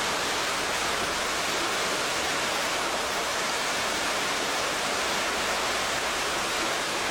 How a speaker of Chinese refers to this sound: 我们体会、体会到水这瀑布所带来的力量、生命的力量。